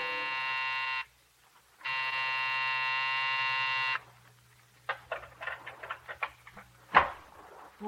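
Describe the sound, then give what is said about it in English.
A harsh, growling electric night buzzer of an office building sounds twice when pressed, a short burst and then a longer sustained drone, steady, followed by a series of scattered clicks and clunks. “It sat square and solid on its haunches, and when you pressed the night buzzer, it growled at you.”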